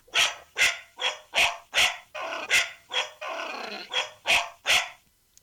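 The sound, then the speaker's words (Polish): Two dogs bark back and forth, one small and yappy, in a quick, steady string of about ten sharp barks with a couple of longer, rougher ones mixed in, loud. “I tutaj będą dwa pieski teraz.”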